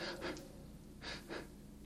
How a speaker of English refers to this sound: The quick, shallow breath